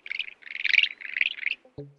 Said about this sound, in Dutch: Trouwens, weet je, weet jij hoe een reuzenmierneter klinkt? Ik heb daar echt geen flauw idee van. Ik wist het ook niet. Ik vermoed dat je het mij gaat laten horen. Voilà, het is zo.